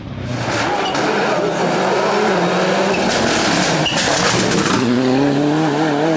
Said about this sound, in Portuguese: É o Toyota Corolla WRC, que é o carro que substituiu o, o Celica, ou Celica, eu nunca sei como se pronuncia esse carro, no WRC a partir de 97.